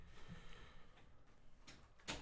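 A door is pulled shut with a soft scrape followed by a short, muffled thud near the end, faint, with no voices.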